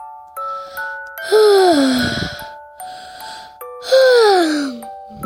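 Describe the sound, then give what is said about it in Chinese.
A little bear yawning twice while listening to a story being read: two loud, drawn-out moaning yawns that slide downward in pitch, set against soft, steady chime-like tones, with a short pause between them. “这天，小兔正给小熊念故事，小熊一边听一边打哈欠。”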